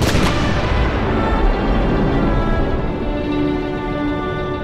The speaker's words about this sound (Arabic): أطلقت القذيفة الأولى من مدفع تشو جيتشنج المدفع الإلهي كما يسميه رفاقه أصابت خزان الوقود بالدبابة الأولى بدقة وانفجرت الدبابة واشتعلت فيها النيران